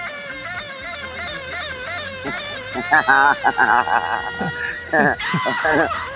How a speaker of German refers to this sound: Es gibt ja. einen Jodelkuli. Willst du mal hören? Ach du Scheiße. Jodelkuli, pass auf, hier, Achtung.